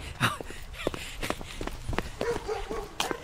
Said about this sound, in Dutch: Oh, ik trek de, de deur achter me dicht.